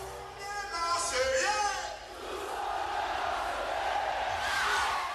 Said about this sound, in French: Le capitaine Didier Deschamps présente la Coupe au Vélodrome sous les cris des supporters en ébullition.